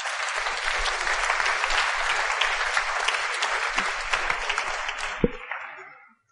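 Applause from an audience welcoming the evening's moderator: dense, steady clapping from many hands that holds at an even loudness for about six seconds before trailing off abruptly at the end.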